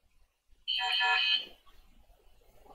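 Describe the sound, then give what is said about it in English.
A phone ringtone sounds once over a Jitsi call, a brief bright electronic chime lasting under a second, fairly loud, followed by quiet background noise. “Oh, sorry, that's my phone.”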